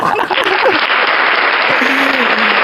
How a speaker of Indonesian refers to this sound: Bro uh, tepuk tangan saya, tepuk tangan saya, tepuk tangan saya.